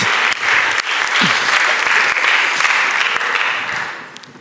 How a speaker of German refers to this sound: Oh, für den Kameramann. Ein Applaus für die Kameramänner. Ihr seid mir überall hinterhergerannt.